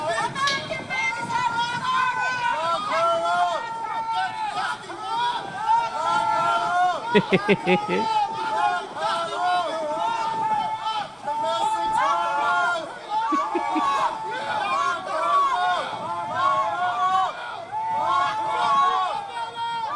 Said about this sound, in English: And stupid Stephen Colbert is like, "Oh, there's protesters outside about that." No, they were. They sounded like they were MAGA protesters.